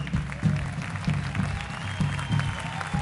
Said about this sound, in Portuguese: Porque feliz é a nação cujo Deus é o Senhor. Se tiver aplaudir mais forte o Senhor.